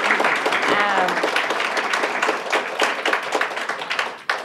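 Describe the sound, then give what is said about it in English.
Audience applause fills the moment, a dense, steady crackle of many hands clapping for several seconds, with a faint voice briefly showing through underneath. “You want to give them a little applause?”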